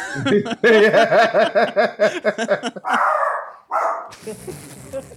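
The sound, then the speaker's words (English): A rapid run of loud barking yips, most likely a person's voice imitating a dog, followed by a couple of rough, breathy bursts of noise. “Take that bark to the skies.”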